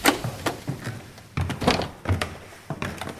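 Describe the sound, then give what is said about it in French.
Heavy footsteps thud up creaking wooden stairs to the fourth floor of a home in the 18th arrondissement of Paris on a rainy autumn morning, in a steady rhythm, about eight dull knocks with faint creaks between them and no voices. “On monte les escaliers qui craquent, on s'arrête au quatrième, on toque à la porte.”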